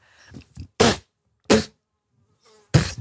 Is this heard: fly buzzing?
yes